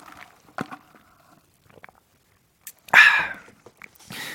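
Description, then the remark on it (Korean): A few quiet mouth and handling noises, then a short slurping sip of hot coffee, followed by a soft breathy exhale. No one speaks. “자, 그러면 저는 6초 안에 커피를 잠깐 마시도록 하겠습니다.”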